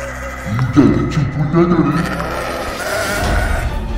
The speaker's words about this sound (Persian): بقیه گوسفندها سم کوبیده و سر و صدا را انداختند